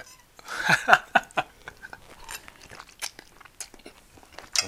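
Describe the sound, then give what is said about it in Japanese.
Crunchy chewing of food dressed with basil sauce: a burst of loud, crisp crunches at first, then quieter irregular bites and munching, with a final sharp crunch at the end. No talking. “うわ混ざってひでえことになったんだこれじゃあ食べてみようねこれをね”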